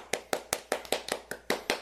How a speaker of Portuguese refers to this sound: quero dar aplausos para